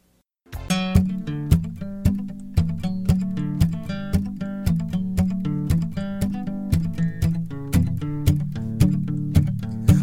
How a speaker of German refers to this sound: Jetzt kommt Musik.